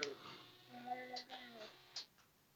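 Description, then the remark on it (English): An animatronic toy named Chewie lets out a drawn-out, voice-like yawn with a wavering pitch as it goes to sleep, accompanied by faint mechanical clicks and motor whirring, ending in a short sharp click. “That was a yawn.”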